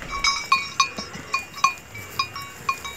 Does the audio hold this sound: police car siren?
no